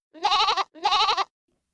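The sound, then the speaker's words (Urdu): Two loud, wavering goat bleats in quick succession, each about half a second long, with no other sounds around them. “دوسری بکری بولی”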